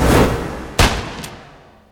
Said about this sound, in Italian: È il 1872. Un uomo crolla a terra abbattuto da un colpo di pistola.